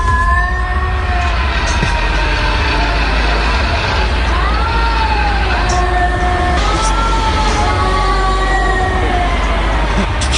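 Cats yowl at night in long, wavering wails that rise and bend in pitch, several cries overlapping one after another over a steady rushing background noise; one cat is on a roof behind an apartment block.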